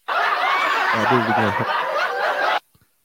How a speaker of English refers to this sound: oh shoot, that's a laptop. You hear that laugh track? you hear that laugh track?